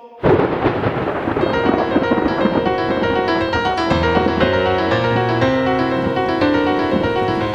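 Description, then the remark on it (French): A sudden loud crack of thunder bursts in and rolls into a long, dense, sustained rumble, like a dramatic storm sound effect, with no one speaking. “Bon, allez, remettez les éclairs, le tonnerre et tout le bazar, OK?”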